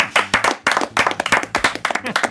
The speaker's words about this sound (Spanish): Bienvenidos al primer WannaCast. Un aplauso. Un aplauso.